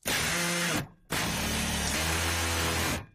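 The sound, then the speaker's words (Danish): A power drill whirs loudly in two bursts, a short run, a brief pause, then a longer run with the motor pitch shifting partway through before it stops. “Nemlig lyden af en boremaskine.”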